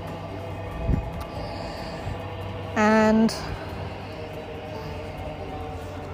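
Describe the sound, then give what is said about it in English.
A Thameslink commuter train rumbles steadily over a railway bridge, with a brief tonal hooting sound partway through and a short spoken word. “There's the Thameslink going over the railway bridge. You'll be able to hear that there.”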